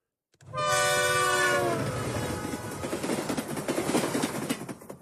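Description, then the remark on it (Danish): A train sounds a loud horn blast, then rumbles past with a steady rattling roar of wheels and cars that continues to the end. “Det var et tog.”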